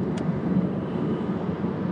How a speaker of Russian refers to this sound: где я сейчас проезжаю на машине по дороге от Джима Банча дома